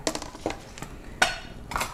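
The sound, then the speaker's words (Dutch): Dishes clink and clatter as they are handled, a series of short, bright knocks with one sharper ringing clink and a final scraping clatter, with no talking. “Ik kan de rest niet in de vatwasser gooien, helaas.”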